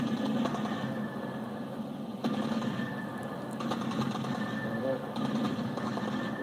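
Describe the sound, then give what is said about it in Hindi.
Rapid, steady mechanical rattling over a low droning roar: sustained automatic gunfire from a Pakistani fighter aircraft attacking Panjshir, coming in long bursts that swell slightly at intervals. No one speaks. “ये लड़ाकू हवाई जहाज़ पाकिस्तान का है पाकिस्तान अपनी पूरी आर्मी और एयरफोर्स के साथ उतर गया है पंशीर में और अब आप इसकी तरफ से फायरिंग देखिएगा हवाई जहाज की तरफ से जो फायरिंग आती है”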